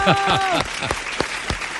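A short round of applause, with several sharp, irregular hand claps ringing out. A brief vocal sound rises at the start, and the clapping carries on steadily at a moderate level.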